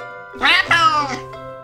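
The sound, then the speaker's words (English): A boy's voice does a drawn-out, two-part meow imitation, fairly loud, with a bright rising and falling pitch over about a second. “Sounds like … likes cats too. His country would be Catmania, and the money would be meows.”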